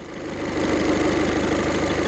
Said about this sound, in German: Genau, hört euch ruhig am Bahnhof an und nicht an, an irgendeinem Bahnhof, ne, sondern an einem ganz besonderen Bahnhof, am, am Bahnhof der Woche.